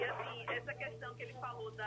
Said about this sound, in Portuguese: Seu áudio está muito baixo. De repente, se a senhora falar um pouquinho mais perto do telefone, um pouco mais alto, a gente te escuta melhor.